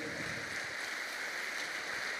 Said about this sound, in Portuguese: Antes de mais nada, eu sei que já foi dito aqui, mas hoje é o primeiro culto do ano. Olha só, gente. Vamos aplaudir aí o primeiro culto do ano. Eita coisa boa!